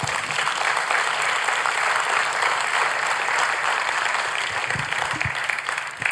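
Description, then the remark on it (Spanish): An audience claps steadily for several seconds as an applause to the Lord, a dense, sustained wash of applause from many hands without any talking. “Démosle un aplauso al Señor por eso.”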